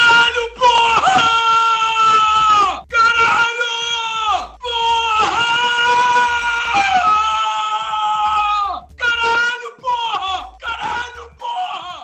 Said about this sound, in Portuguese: Então, assim, o futuro tem motivo motivo pra gente estar tá ouvindo essa reação do torcedor do Broncos. Caramba!